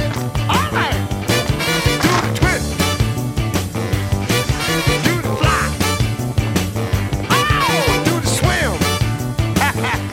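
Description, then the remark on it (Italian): A rhythm and blues band plays loudly and steadily, a horn section punching out short, sharp riffs over a driving beat and bass, with a voice wailing above at moments. “Senti anche la sezione fiati tipica del rhythm and blues, poche note, molto incisive.”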